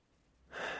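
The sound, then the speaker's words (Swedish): One short sniffle: a quick sharp breath drawn in through the nose, rising suddenly after a brief moment of quiet, with nothing else audible. “Men kanske både snörvlingar och blåsten kanske blir för mycket.”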